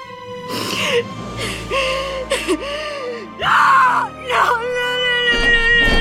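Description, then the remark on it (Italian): A woman screams and sobs in an apartment building, in loud, anguished bursts, her voice breaking into wailing cries and gasping whimpers, rising to a piercing peak midway before trailing into strained, continuous wails. “E non gridare che ti sente tutto il palazzo!”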